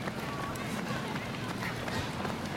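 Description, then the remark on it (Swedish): Footsteps of two women from a swimrun, training, running past on a race course: quick rhythmic strides against steady outdoor noise, with voices talking alongside. “kommer swimrun for fun och springer förbi oss.”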